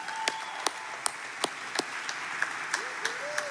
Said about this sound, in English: And I've got two graduating seniors hanging out with some of our K 12 kids. Would you give it up for some of our K 12 kids here first?